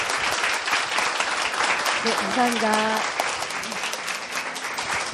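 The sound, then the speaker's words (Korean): Steady applause from an audience for two people fills the whole clip, a dense crackle of many hands clapping at once, while a man briefly speaks over it partway through. “네, 두 분께 박수 좀 드리시고요.”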